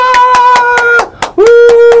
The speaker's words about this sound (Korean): 뜨거운 박수로 받습니다. 와!